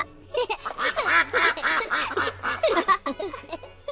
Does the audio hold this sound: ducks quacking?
yes